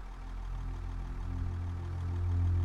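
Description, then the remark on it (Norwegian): A tractor engine, started and driven around, chugs steadily, a low, throbbing rumble that grows slightly louder toward the end. No voices, just the continuous running engine. “Tigeren spiste en høne hoppet opp på låven og startet en traktor som den kjørte rundt i.”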